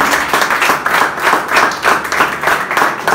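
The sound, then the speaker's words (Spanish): Loud applause for the Lord from many hands, the clapping falling into a steady, even rhythm of about two to three beats per second, continuing throughout without any voices. “Tenemos fuerte aplauso el Señor.”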